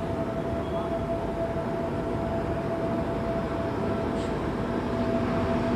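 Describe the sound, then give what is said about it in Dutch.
A tram rail cleaning vehicle rolls past while cleaning the tram rails, a loud, steady rumbling roar with a sustained mechanical whine running through it for the whole stretch. “De, de, de, tramrails worden schoongemaakt.”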